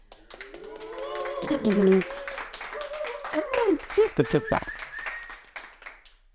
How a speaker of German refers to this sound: Wir sind hier auf dem viel angekündigten Fotografie-Workshop, den wir hier gegeben haben, mit live tatsächlich den Workshop-Teilnehmern und ich möchte mal kurz hier einen donnernden Applaus hören auf Portugiesisch.